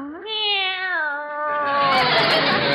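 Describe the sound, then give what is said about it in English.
A single long, drawn-out meow from a pet cat named Minerva, loud, that begins as a clear tonal cry and then turns into a harsh, raspy yowl, with no one talking. “I just dropped by to leave our cat”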